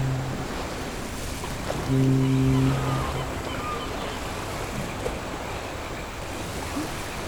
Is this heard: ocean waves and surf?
yes